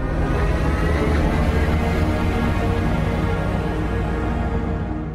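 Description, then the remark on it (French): A 2025 BMW Neue Class prototype car produces a loud, steady, droning hum rich in layered tones, sustained evenly for several seconds and fading slightly at the end, with no talking. “C'est le son du prototype de la BMW Neue Class modèle 2025.”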